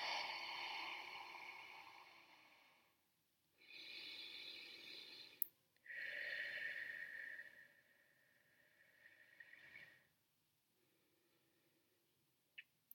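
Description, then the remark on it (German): Slow, deep breaths drawn in and let out, a long airy inhale followed by a long exhale, repeated about three times with quiet pauses between. “Und lass uns nochmal atmen. Tief ein und aus.”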